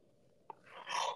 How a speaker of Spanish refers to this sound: ah, perdón, perdón, pero me dio un bostezo.